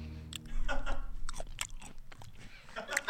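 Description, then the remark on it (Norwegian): Someone eats a mandarin right at the microphone as ASMR: wet, juicy bites and squelchy chewing with sharp clicks and smacks, loud and up front, with no talking. “Det lyder en mandarin rett i øret ditt.”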